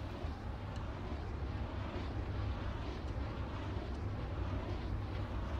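Wind turbine blades whoosh through the wind in a steady, continuous low rumble, with a broad airy hiss layered on top and no voices.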